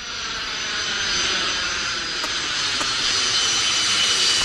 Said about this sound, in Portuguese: É um jato.